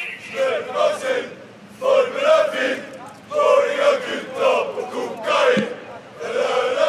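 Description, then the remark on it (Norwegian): A group of 50-60 male Vålerenga football supporters chants loudly while marching through Bergen on the day of the Vålerenga–Brann match, their massed voices rising and falling in waves in rhythmic, repeated bursts with brief gaps between phrases. “Og som du hører, er vi sammen med en gjeng på 50-60 Vålerenga-supportere som marsjerer gjennom Bergen by”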